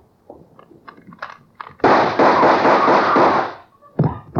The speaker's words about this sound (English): the gun outside opened up. The first slug caught her in the left shoulder, spinning her out of the way of the rest of them.